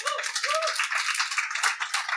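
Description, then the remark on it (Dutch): Steady audience applause fills the moment, a dense wash of many hands clapping at once, with a few faint whistle-like tones rising briefly above the crowd. “Mag ik een heel erg hartelijk applaus”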